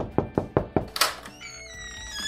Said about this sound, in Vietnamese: Còn ngay bây giờ âm thanh quen thuộc của chương trình xin phép được vang lên tiếng gõ cửa để chào đón khách mời ngày hôm nay.